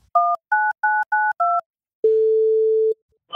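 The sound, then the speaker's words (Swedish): Five quick touch-tone beeps as a phone number is dialed, followed by a long, steady ringing tone on the line. Clear and close, with no voices. “vi ringer nu och så har han inte tid nu så har vi inte möjlighet.”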